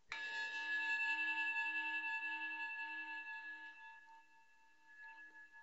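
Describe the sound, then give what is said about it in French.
A single meditation bell chime played from a mobile phone rings out clearly, its bright metallic tone sustaining and slowly fading with a gentle pulsing shimmer over several seconds, with no voices present. “Donc ça c'est sur mon téléphone, je ne me sers pas de ça quand on fait nos méditations, moi j'ai mon propre bol tibétain, mais c'est compliqué de se balader avec son bol tibétain au travail ou dans les transports.”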